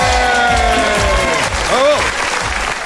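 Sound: applause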